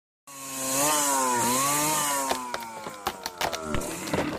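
A chainsaw cutting down forest trees: the engine whines steadily at a high pitch, its tone dipping and rising as it bites into wood, then breaks into sharp cracking and snapping noises as timber splits and falls.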